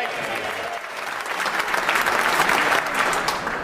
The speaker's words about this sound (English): Your Excellency, we generally do not allow applause in this chamber. but on this occasion, the House quite rightly.